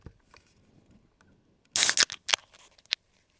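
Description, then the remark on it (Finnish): A can of Karhu beer cracks open with a loud, sharp hiss, quickly followed by a second, shorter hiss and a few small metallic clicks, with no one speaking. “Mä aion nyt kokeilla, miltä kuulostaa, kun karhu aivastaa.”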